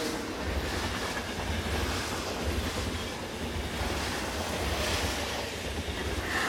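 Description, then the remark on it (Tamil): A train rolls steadily along the tracks at night, a continuous rumbling roar with faint rhythmic clatter underneath, heard from inside the train, with no voices. “இரவு மொத்தம் ட்ரெயினில் ஒரு சைலன்ஸ் இருக்கு”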